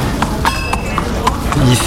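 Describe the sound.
Horse hooves clip-clop at a steady walking pace as stable lads walk the horses, a sharp knock roughly every quarter second, over a busy background with faint voices.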